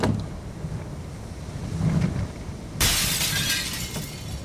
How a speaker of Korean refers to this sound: 점점 세차게 흔들리던 창문에서 날카로운 소리와 함께 유리창이 깨지고 말았다.